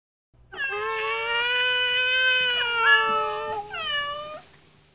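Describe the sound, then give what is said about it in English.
One of six newborn kittens gives a long, drawn-out meow, wavering in pitch before rising into a second plaintive cry, with only a faint low hum behind it and no talking. “Look, Six little cats have been born.”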